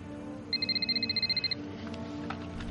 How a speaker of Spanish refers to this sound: Suena el celular de Tony. Él lo saca de su bolsillo y lo parte en dos.